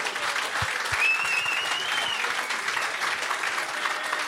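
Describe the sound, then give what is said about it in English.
A crowd at a live show claps for James Haskell in a dense, continuous wash of applause that holds an even loudness throughout, with a few brief whoops or cheers rising over it early on. “Um, please put your hands together for James Haskell.”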